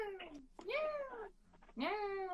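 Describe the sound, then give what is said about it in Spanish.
A person imitates a cat's meow with about three drawn-out, wavering mews in quick succession, fairly loud, the last one rising sharply before trailing off. “Y toda la cinta era como una hora y media de ¡Miau!”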